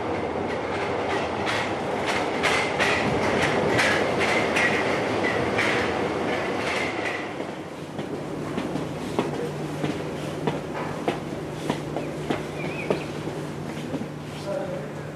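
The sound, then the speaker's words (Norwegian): A Paris metro train on the way to Port d'Orléans rumbles along with a loud, steady roar and rhythmic clacking of wheels over track joints, then eases into a quieter hum with sharp, scattered clicks and a faint tonal whine. “To uker etter det her sitter vi på metroen på vei til Port d'Orléans for å møte denne personen.”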